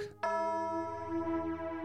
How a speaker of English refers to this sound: As the bell sounded the hour, there came a knocking at the street door.